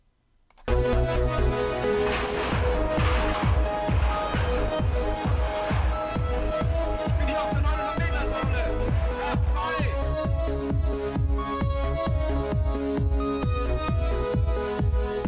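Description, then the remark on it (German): A new upbeat outro music jingle kicks in abruptly and plays loud and steady, with a driving regular drum beat under bright layered instruments and sustained chords throughout. “Schlusswort gehört dir, bevor ein cooles neues Outro kommt.”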